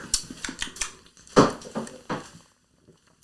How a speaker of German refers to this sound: Ich glaube, wir stoßen jetzt mal an. Ja, genau. Wir ja. trinken uns ein bisschen Mut an.